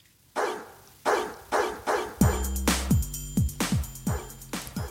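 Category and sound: animal, dogs barking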